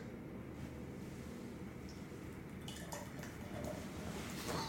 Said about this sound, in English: While I'm pouring this beer, before we go into the other side, the Raiders side, let's uh, listen to a word from our sponsor.